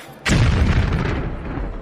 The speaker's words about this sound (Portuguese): E na hora que um cara lá de dentro gritou dinamite, as pessoas saem correndo. E ali no pátio, na estrada, tu percebe uma explosão.